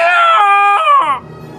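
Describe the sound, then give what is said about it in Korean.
A dog howls in one long, wavering, tonal cry that rises and falls in pitch, then fades into quieter background noise. The howl is loud, with no one talking. The dog is in a village, howling from the second of the houses in response to a person loudly imitating a rooster's crow. “어, 제가 닭소리를 크게 내자 제 닭소리에 화답이라도 하듯 어디에서가 들려는 감격적인 개소리.”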